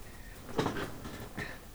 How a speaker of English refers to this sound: Sorry for you all that ruckus. I was I was getting comfortable in my chair